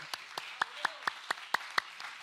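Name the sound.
audience clapping hands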